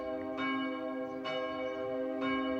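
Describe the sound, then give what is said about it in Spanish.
Church bells toll slowly and solemnly for a funeral, three evenly spaced strikes whose deep ringing overlaps and sustains, sounding somewhat distant with no voices present. “Unas campanas distantes anuncian el funeral de Titurel.”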